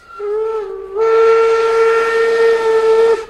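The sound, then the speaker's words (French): A steam train's whistle blows loud, a short blast followed by a longer sustained one, with a rush of hissing steam underneath the second blast. No voices. “Ben oui, le petit train du Nord va voir le jour. Ces locomotives-là ouvrent l'accès à un développement économique très intéressant aux habitants des pays d'en haut.”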